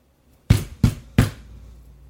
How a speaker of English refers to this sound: That was really scary because the delay made it so that I didn't see you knock. It was just a loud knocking noise. So that was scary.